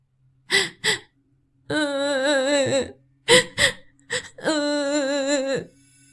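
A girl sitting in bushes with her head down sobs and cries, with sharp gasping intakes of breath followed by long, wavering wails, the pattern repeating twice with no other sounds around it.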